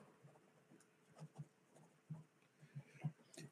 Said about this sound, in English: And let me uh, write some more shit down.